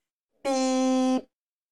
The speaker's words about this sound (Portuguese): Eu apertei o dedo na buzina, velho. parecia, parecia que eu tinha acabado de chegar na casa da cliente, né? É como se eu tivesse acabado de chegar na casa da cliente e fiz...